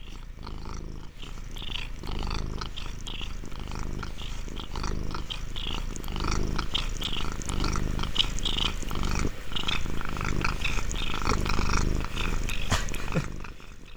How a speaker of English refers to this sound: Can you hear that? I, I can hear that. I can I can see the cat just right under the mic. He's making some really really scary sounds, honestly.